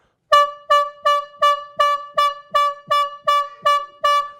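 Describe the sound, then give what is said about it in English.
A trumpet sounds an alarm as a rapid run of about ten short, brassy blasts, evenly spaced and loud, with no voices around it. “then you shall blow an alarm with the trumpets, and you shall be remembered before the Lord your God and shall be saved from your enemies.”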